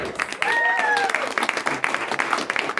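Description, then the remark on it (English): An audience applauds steadily for the next competitor, dense clapping with a brief whoop or whistle rising above it near the start; the applause stays loud and continuous throughout. “And clap your hands for your next competitor,”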